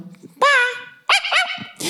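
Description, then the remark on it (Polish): Dogs bark loudly: a drawn-out, yelping bark followed by a quick run of two or three sharper barks and a final short yap, with faint low murmuring before them. “No to słuchajcie, psy idą.”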